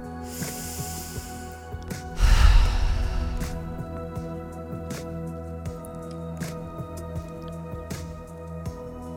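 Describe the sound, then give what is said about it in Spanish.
An airy inhale followed by a longer, heavier exhale, one deep breath taken alone with no talking while tapping on the crown of the head, over a quiet background with faint soft ticks. “Continúo golpeando la corona de la cabeza y hago una respiración profunda.”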